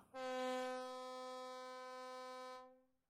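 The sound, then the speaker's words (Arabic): A distant ferry horn, from a ferry leaving the harbor bound for the Kadıköy area, sounds one long, steady blast lasting about two and a half seconds, a bright, brassy drone that holds level and then fades out briefly, with no voices. “ميرا ما كانت منتبهة قد تأخر الوقت لحد ما سمعت صوت صفارة العبارة من بعيد وهي عم تغادر المرفأ”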